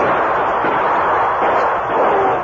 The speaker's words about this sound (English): Elk's gun roared and Brush was about to fire, but Tonto joined the fight. His gun seconded the Lone Ranger.